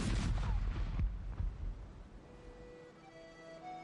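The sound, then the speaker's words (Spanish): A 22-cannon salute salvo fired in 1688 in a British colony to honour a dead pirate: a few heavy, booming blasts in quick succession, loud and rumbling, then a long echoing decay as faint sustained tones emerge. “Se disparó una salva de 22 cañonazos y se decretó un día de fiesta nacional.”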